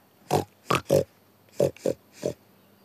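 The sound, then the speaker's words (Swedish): A farm pig grunts and oinks six times in short, snorting bursts, three in quick succession and then three more after a brief pause, fairly loud with no one talking. “Grisen tänker gå till attack! Det är den där tokiga grisen från bondgården!”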